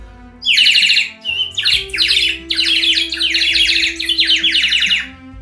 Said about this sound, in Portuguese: De repente, ela escuta um barulho, mas não era um barulho, estava se aproximando, eram os pássaros os pássaros vinham e ela disse: Pronto, agora eu vou ter com quem conversar. E os pássaros vinham todos cantando, cantando.